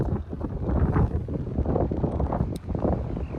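Steady wind in Missouri buffets an outdoor microphone, a loud low rumbling roar with gusty surges that fills the whole stretch without a break.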